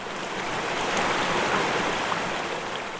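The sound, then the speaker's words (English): A steady, continuous rush of flowing water from a creek running over stones through a forest, holding an even, moderately loud level throughout with no voices or other distinct sounds. “Picture yourself standing by a creek or a small river flowing through a, a forest or a glade of trees.”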